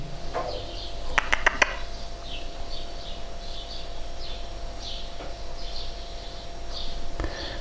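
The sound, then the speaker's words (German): Birds sing outside in a steady series of short, high chirps, fairly faint, over a constant low refrigerator hum, with a few sharp clicks early on. No one speaks. “Hintergrund wäre der Kühlschrank, die Vögel.”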